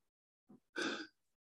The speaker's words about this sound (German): Muss ich mal tief atmen.